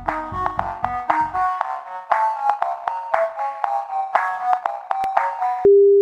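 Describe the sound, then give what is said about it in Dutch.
A phone line plays a run of electronic tones in a short melodic pattern while a call is transferred to the medical supervision department of partner firm Liantis, with low pulsing underneath at first, then one steady held tone at the end. No one speaks. “Ik verbind je even door”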